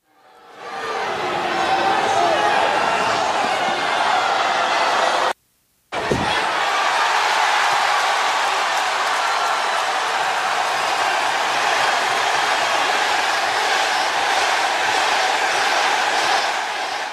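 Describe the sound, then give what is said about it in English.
A huge wrestling arena crowd roars continuously as Daniel Bryan is about to start fighting Bray Wyatt, a dense, loud wall of cheering that holds steady for the whole stretch, broken only by a brief cut of silence partway through. “Crowd is going super electric right now.”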